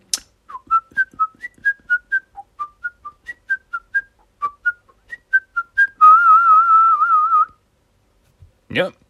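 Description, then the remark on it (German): A person whistles a bright, quick melody of short staccato notes, imitating a flute, then holds a long wavering note before stopping; a brief breathy noise follows at the end. “Und auf einmal fängt er aber an, holt er seine Flöte raus und fängt an zu flöten.”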